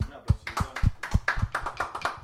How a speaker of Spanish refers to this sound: Gusto, chicos. Un placer y un aplauso.